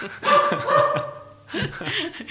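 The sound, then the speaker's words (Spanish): The speaker's small female dog yaps in quick, high-pitched bursts, two short flurries of barking separated by a brief pause. “Eh, es, mi perrita para que vean que esto es... En vivo.”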